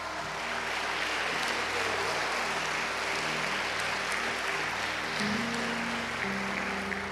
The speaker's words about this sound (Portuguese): A bênção vai chegar até você e você pode ficar de pé e aplaudir o Senhor por isso.